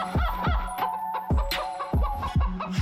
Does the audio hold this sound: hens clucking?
yes